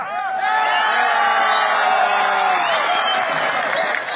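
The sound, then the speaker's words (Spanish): A loud crowd at a rescue site erupts in applause and cheering as a woman is pulled out alive by a firefighter. Many overlapping shouting voices and whoops form a dense, sustained roar for the whole stretch. “Todos empiezan a aplaudir, se hace la aljarabía y pues bueno, era la última que teníamos que rescatar”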